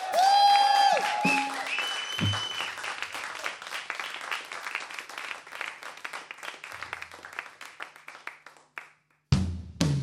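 A studio audience bursts into loud, sustained applause and cheering, dense clapping filling several seconds before a brief cutoff near the end, with a short musical flourish opening the moment.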